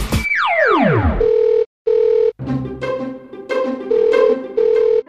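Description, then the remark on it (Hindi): A descending swoosh gives way to a steady electronic telephone ringing tone of a call being placed to a mimicry artist, More saheb, pulsing in repeated bursts with short gaps, heard over a busy musical or noisy background rather than alone. “मोरे साहब को फोन लगाया उनके टैलेंट को आजमाया”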